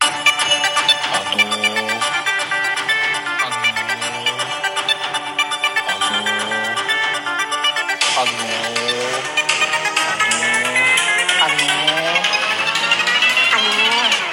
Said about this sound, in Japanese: じゃあ、久しぶりに私のオリジナルの、えー、ジングルも聞いてみましょうかね。はい、こちらでございます。